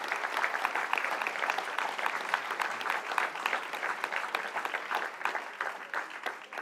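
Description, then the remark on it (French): Steady audience applause thanking a speaker at the close of a debate, filling the whole stretch, a dense patter of many hands clapping at an even, sustained volume without a break. “vous partagez les applaudissements avec euh, Stéphane Courtois qui est parti, mais il a eu sa petite ration tout à l'heure.”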